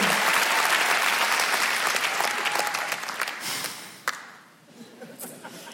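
A large audience at the Montreux Comedy show applauds loudly to welcome the next comedian, with dense, sustained clapping and some cheering, gradually thinning out and fading toward the end as a few scattered claps remain.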